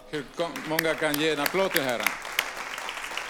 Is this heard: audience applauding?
yes